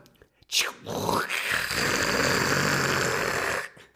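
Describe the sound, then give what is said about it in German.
A voice imitates an espresso machine brewing, a loud, rough hissing and gurgling rasp that rises after a brief opening sputter and holds steadily for about three seconds before cutting off. “Aber trotzdem können wir den Sound einspielen.”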